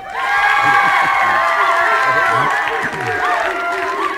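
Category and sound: crowd, crowd applauding and cheering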